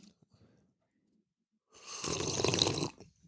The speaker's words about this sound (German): Ich dachte, ich fange mit so einem ganz authentischen Schlürfen an noch.